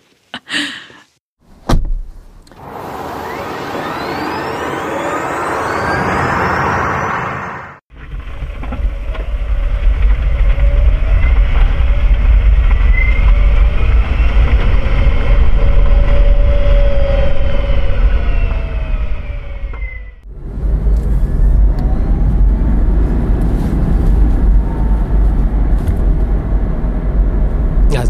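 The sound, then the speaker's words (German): A sharp door-like clunk opens, followed by a car engine running loudly and steadily with rising and falling tones as it accelerates, cut by a brief pause before the engine resumes. “Die sind von einem Auto und es gibt verschiedene Türen, Motor, was weiß ich, was Backbeschleunigung.”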